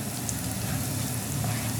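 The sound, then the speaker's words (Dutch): A steady sizzle of finely chopped garlic and ginger frying in ghee in a hot pan, a continuous crackling hiss with no pauses and no voices. “Tijd voor de volgende stap? Ja. Knoflook en gember. erbij.”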